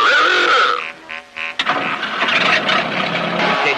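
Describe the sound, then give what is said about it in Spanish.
A car engine cranks with a few stuttering turns, then catches and roars to life, settling into a steady, loud running rumble. “Su motor le está pidiendo la ganadora.”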